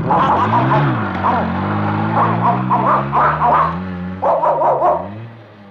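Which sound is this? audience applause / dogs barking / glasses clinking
dogs barking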